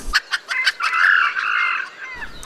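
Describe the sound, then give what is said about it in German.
A red junglefowl (Bankiva chicken), a bird of the pheasant family, crows much like a domestic rooster: a few short clipped notes lead into a long, strained, drawn-out call that rises and then trails off, loud and alone with no talking. “Es ruft sogar ganz ähnlich wie unser Haushahn, den wir hier ab und zu ja vielleicht zumindest für die, die so am Stadtrand leben, hören können.”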